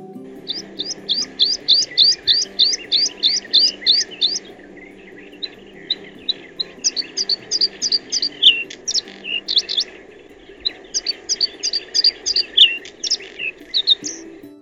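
A bluethroat sings alone in fast bursts of bright, repeated high chirps and trills, broken by short pauses, clear over a faint low background hum.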